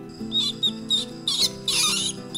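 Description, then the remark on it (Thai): A rapid series of high, chirpy mouse squeaks, about five short bursts with the last ones longer, over a soft, steady musical background. “หนูมาหาเป็นตัวแรก”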